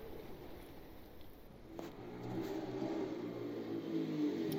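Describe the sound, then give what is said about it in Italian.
A small scooter engine revs up, its buzzing tone climbing and growing louder after a quieter start, holding a steady whine with no voices. “Lo scooter di Sarita metteva sempre Enville un po' in apprensione, singhiozzante com'era soprattutto quando lei lo lanciava a velocità ultrasonica sulla tangenziale”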